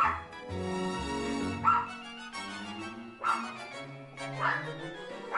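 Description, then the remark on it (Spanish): A small dog whines and whimpers in long, high, wavering tones, broken by a few sharp yips and barks at intervals, fairly loud. “Así que si te decides por un enano o un toy o juguete, recuerda que su esencia es la de un perro grande y con instinto de perro cazador.”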